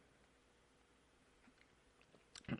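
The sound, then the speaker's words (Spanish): A wet gulp of chamomile tea near the end, a quick swallow with a faint slurp, following a couple of seconds of near silence with soft mouth noises. “Eso fue un trago de mi té de manzanilla.”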